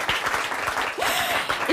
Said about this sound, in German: Und wenn er gewusst hätte, er kommt hier hin und er bekommt Applaus, dann wäre er auf jeden Fall gekommen. Guck mal, da kommt der Applaus für dich.